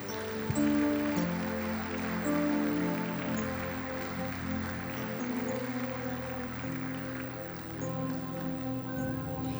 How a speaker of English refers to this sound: Shall we give a clap offering unto the Lord?